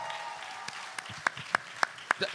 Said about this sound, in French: Mais vu qu'il y a des jeunes humoristes qui débutent, qui sont là, est-ce qu'on peut applaudir les humoristes qui sont en arrière, sont stressés?